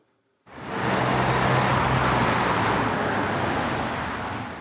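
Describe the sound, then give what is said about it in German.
After a brief silence, dense road traffic rises and stays loud, a steady roar of cars braking at a road bottleneck in the village of Mulenz and accelerating again once through, with a low engine hum underneath that eases slightly toward the end. No one speaks. “Autos bremsen am Engpass und geben wieder Gas, wenn sie durch sind.”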